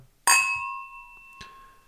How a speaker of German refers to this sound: Komm, wir müssen auch nochmal die Gläser aneinander schlagen.